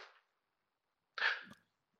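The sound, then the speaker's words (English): A single sharp dog bark rings out inside a car with no talking, preceded by a brief, fainter burst of noise a moment earlier. “My dog just barked in the background, so I'm going to explain why there's a dog in the car.”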